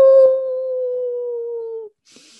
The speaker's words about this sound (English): Well, except during the full moon, of course, at which point I would invite you and your woofy dog to join me in a chorus, and you would see how wonderful it is to howl.